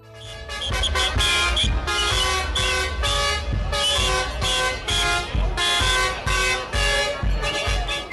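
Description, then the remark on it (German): Many tractor horns honk together in loud, overlapping blasts, some held long and others short, over a constant low rumble of engines, with no clear voices, as farmers with hundreds of tractors blockade the access roads to the town hall in Biberach an der Riss, Baden-Württemberg. “Bauern, deren Existenz von den Grünen zerstört wird, blockierten mit Hunderten von Traktoren die Zufahrtsstraßen zur Stadthalle.”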